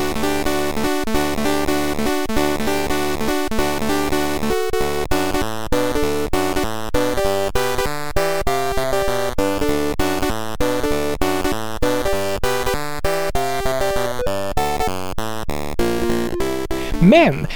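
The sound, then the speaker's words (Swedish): Bright, buzzy chiptune music from a Commodore 64 game soundtrack, a cover of a rock band's song, plays alone, with fast stepping square-wave melodies over a pulsing bassline and sharp percussive blips at a steady, busy tempo. “Och soundtracket till spelet Frantic Freddy lät så här.”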